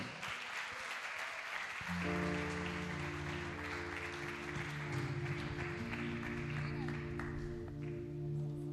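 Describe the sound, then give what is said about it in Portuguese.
A church audience applauds for the Lord at the end of a sermon, with dense, steady clapping that continues throughout, while sustained organ or keyboard chords come in after a couple of seconds and play beneath it. “Eu agradeço a oportunidade e as palmas são para o Senhor.”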